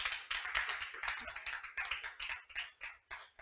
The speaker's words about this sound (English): Can you guys give them a hand clap to let them know how much we appreciate them?